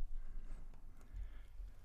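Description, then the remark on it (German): A horse's hooves clip-clop at a walking pace, a few soft, steady knocks over a low rumble, fairly quiet and with no voices. “Da zieht der Vater nun mit dem Pferd zum Markt.”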